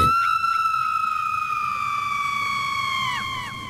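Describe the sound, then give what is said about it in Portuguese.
A siren-like alarm clock blares a steady, piercing electronic tone with buzzy overtones, holding loud for over three seconds before its pitch dips slightly at the end. “Isto é o despertador.”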